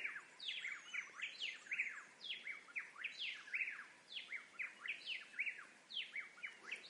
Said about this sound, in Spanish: No conozco esa ave. Porque supongo que es una ave. No sé qué más puede hacer. Pero no, no, no le conozco más que su canto.